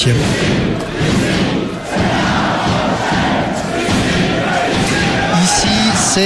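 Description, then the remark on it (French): Stade Rochelais rugby supporters chant loudly together at the entrance of La Rochelle airport, seeing off the team's players flying to Dublin, in a dense, continuous crowd roar with rhythmic shouted voices, occasional thuds and a few higher sung notes near the end. “C'était le chant des supporters du stade Rochelet à l'entrée de l'aéroport.”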